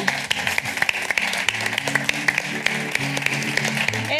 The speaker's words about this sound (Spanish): Pues un aplauso maravilloso.